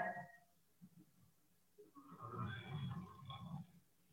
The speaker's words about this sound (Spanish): Y esto, esto que oyen ahí eso es mi perrito que está, este, ¿cómo se llama? Roncando.